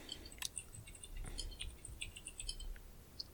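Rapid, irregular tapping on a computer keyboard as someone pulls up information on the 2019 film The Personal History of David Copperfield, a quick burst of light clicky keystrokes, fairly quiet, with no voices over it.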